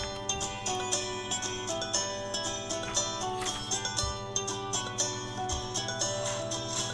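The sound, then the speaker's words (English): Steady instrumental background music from an educational video explaining dyscalculia plays throughout, with sustained tones, a low bass line and light rhythmic accents at an even, moderate level, with no voices. “Absolutely, and, uh, but what you hear is mostly uh, music.”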